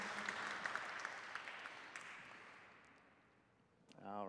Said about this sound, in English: All right, very good. Let's give them a round of applause as they come down here. So cool.